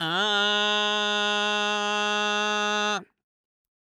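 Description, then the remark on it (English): A person demonstrates a pinched, nasal, squeezed singing tone: a single held vowel, steady and bright for about three seconds before stopping abruptly. It is fairly loud and heard alone. “Okay, if I made a pinchy sound or a nasally sound or a squeezy sound, it might sound like this.”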